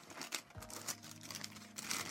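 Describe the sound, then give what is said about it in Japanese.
Crinkling of a plain paper sweets wrapper being handled, with scattered irregular rustles and crackles over about two seconds, fairly quiet and with no talking. “あの何気ない紙ですけどね、うん、うん、このお菓子には合ってますね”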